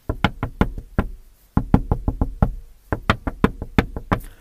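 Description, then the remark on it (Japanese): Sharp, insistent knocking by a woman on a car window in a traffic jam, quick irregular raps in clusters with a short pause between bursts, fairly loud, with no voices. “女はずっと車の窓を叩いてくる。”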